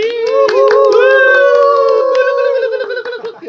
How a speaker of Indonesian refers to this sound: Tepuk tangan dulu dong.